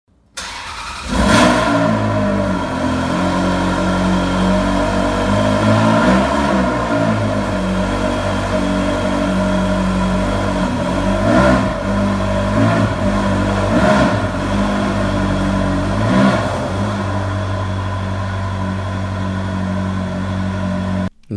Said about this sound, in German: So, und damit ihr wisst, wie sich das anhört, wenn man so ein 360 Challenge Dadala anwirft, ähm, hören wir uns jetzt mal einen Kaltstart an.